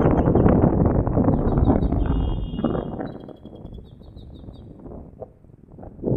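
A small bird sings in a tree in spring, faint high-pitched chirping phrases in short repeated bursts, partly buried under a loud, steady rumble of wind noise; no one speaks.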